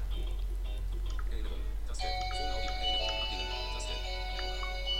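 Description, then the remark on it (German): A phone ringtone starts about two seconds in and keeps sounding as a steady, chiming melodic tone, fairly soft and somewhat distant, over a constant low background hum. “So, ähm, lasst es klingeln. Ich kann jetzt nicht aufstehen, weil das Telefon ist weit weg.”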